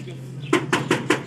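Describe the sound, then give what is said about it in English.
Four firm knocks on a door in a quick, even rhythm, each a sharp hollow thud, following a brief quiet stretch with a faint low hum underneath. “All right, let's knock on the door.”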